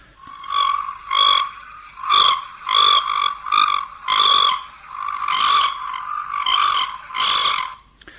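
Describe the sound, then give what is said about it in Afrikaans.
Rain frogs call in a steady series of short, nasal croaks, about ten bursts over several seconds, fairly loud with no voices. “Nou miskien kan ek sommer net gou om te begin net hoe klink hierdie reënpaddas?”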